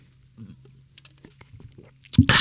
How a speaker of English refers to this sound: And uh, let's take a sip of coffee.